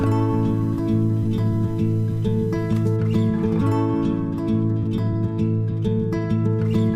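A folk pop song plays at an even, moderately loud level, with warm layered instruments, a steady strummed rhythm and light percussive accents running throughout.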